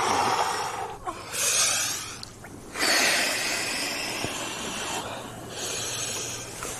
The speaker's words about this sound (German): ist im Wasser bis zum Hals, hält sich noch an der Leiter fest und atmet ganz ruhig und tief.